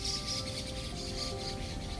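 Faint birds chirp intermittently against a steady outdoor hum during a picnic, a few scattered high tweets spread across the moment with no one talking.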